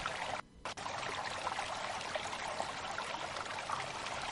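Steady flowing, trickling water fills the scene, a continuous bubbling rush with a brief dip near the start, no voices present.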